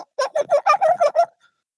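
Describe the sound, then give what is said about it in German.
A voice imitates a bird call with a quick run of about seven choppy, gobbling pulses in one fairly loud burst, then silence. “Mach die Ziege hier, Vogel. Schwein, Alter.”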